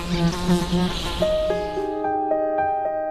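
Bees buzz in a continuous, fluctuating drone. The hum wavers at first, then settles into steadier, higher-pitched tones, with no voices present.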